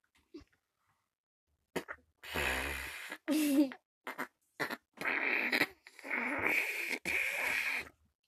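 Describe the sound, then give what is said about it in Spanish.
A voice imitates a dog's fart with a string of loud, spluttering bursts, some short pops and some longer raspy blasts, over several seconds with no talking. “Y después me volteo y veo a mi perro con la cola levantada.”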